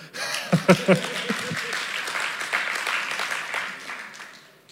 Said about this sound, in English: Yeah, you can clap.